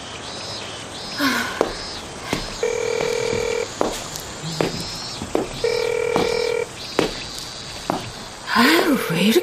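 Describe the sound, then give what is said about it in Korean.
A phone call rings out unanswered: two steady, buzzy ring tones, each about a second long, separated by a pause, with scattered clicks, rustling and a brief voice around them. “전화를 안 받아?”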